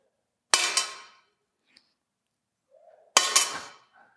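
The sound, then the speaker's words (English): Two tiny copper coins drop into a treasury one after the other with bright metallic clinks, each ringing briefly before fading, separated by a few seconds of near silence. “And she's got two tiny little coins and she drops him in the treasury.”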